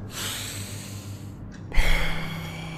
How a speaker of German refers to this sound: Wir atmen jetzt mal tief ein. Und wieder aus. Na komm schon, mach mit.